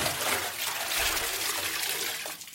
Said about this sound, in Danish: Det vil sige, en fod sættes i vandet, og vand svarende til fodens størrelse ryger ud af karret. Men sættes hele kroppen i, skaber det et meget større plask.